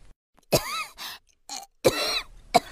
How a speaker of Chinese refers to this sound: 一阵咳嗽声传来，小海马这才醒了过来。